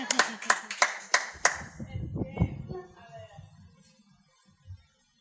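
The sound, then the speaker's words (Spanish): A short burst of audience applause for the questions raised: about six sharp, crisp claps in a quick steady rhythm, then fading into murmuring voices and a faint thump near the end. “Un aplauso a los cuestionamientos que a ti te quieres saber.”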